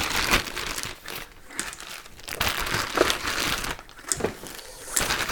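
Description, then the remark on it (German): Someone rummages through a drawer of batteries, producing a steady run of rustling, crinkling and clattering bursts with short pauses, moderately loud throughout and with no voices. “Oh Gott, hier sind noch 1000 Batterien, wo ich alle nicht weiß, ob die voll oder leer sind.”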